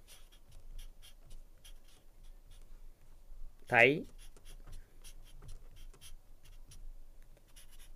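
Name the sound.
pen writing on paper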